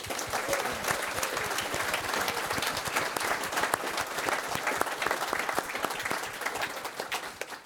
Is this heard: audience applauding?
yes